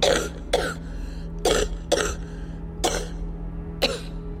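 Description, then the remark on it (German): A man coughs harshly about six times in irregular bursts, some close together in pairs, trying to cough sulfur fumes out of his lungs, over a steady low droning hum in the background. “Er versucht, so viel Sauerstoff wie möglich aufzunehmen und den Schwefel aus seiner Lunge zu husten.”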